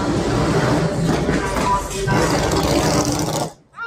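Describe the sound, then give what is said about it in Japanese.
A motorcycle passes by in New York, its loud, rumbling engine roaring steadily for several seconds with a dense rough mechanical texture, then cutting away abruptly near the end. “というわけで、ちょうど私が今通ってるところで、バイクがぐるるんと”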